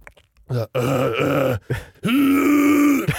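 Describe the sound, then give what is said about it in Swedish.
A single voice makes guttural, demonic-sounding growls with the mouth in the style of metal vocals: a few short rough bursts followed by one long sustained growl, loud with no other sounds. “Att, göra, att, eh, att på ett sätt eh, göra ljud med sin mun som låter lite så här demoniskt.”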